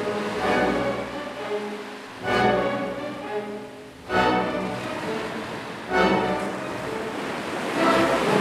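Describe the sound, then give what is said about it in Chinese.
Stormy ocean waves roar steadily, with a heavy surge crashing in about every two seconds over a constant loud wash of churning water. No voices. “强风大浪打垮了他的船只，他在海中昏迷，随着海浪漂浮。”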